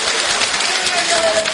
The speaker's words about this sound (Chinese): 哎，哎，好，掌声鼓励，谢谢谢谢，谢谢。